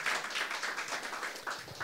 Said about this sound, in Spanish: Un fuerte aplauso para nuestro Señor Jesucristo y vamos a orar.